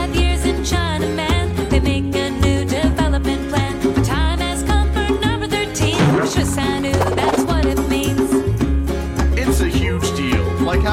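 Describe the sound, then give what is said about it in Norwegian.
Upbeat, funky music from an animated video plays continuously and loudly, with a steady bass groove, rhythmic beats and bright melodic layers, and no talking. “Det er animasjonsvideo, ikke sant? Animasjonsvideo. Og uh, funky musikk.”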